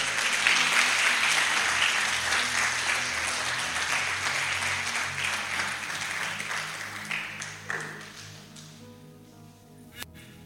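An audience breaks into a dense wash of steady clapping that gradually thins over several seconds, dwindling to a few scattered, isolated claps before fading out.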